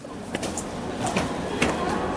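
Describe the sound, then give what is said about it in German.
The entrance door of the Ozeaneum opens with a low mechanical rumble and a few sharp clicks and knocks spread over about two seconds, moderately loud, with no one speaking. “Guck mal, da ist die Tür, da müssen wir rein.”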